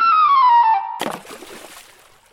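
A clear whistled tone slides downward for about a second, then a loud splash into river water, as rats fall into a river, bursts in and fades into bubbling, trickling spray. There is no talking.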